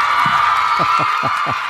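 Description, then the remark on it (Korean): A short cheering sound effect played by the producer on the radio show Im Baek-cheon's Baek Music, celebrating a listener's ratings-survey call: a steady, bright crowd roar throughout, with a handful of quick falling whoops rising out of it in a loose rhythm. “박 PD, 환호 소리 한번.”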